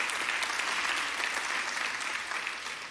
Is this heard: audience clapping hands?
yes